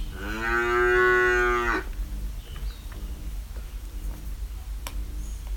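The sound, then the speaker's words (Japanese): A single long, loud cow moo fills the first couple of seconds, rich and harmonic, then gives way to a quieter outdoor background with faint ticking and scattered small sounds, with some forest bird chirping mixed in. “若干森のさえずり的なものも入れつつ牛ですね”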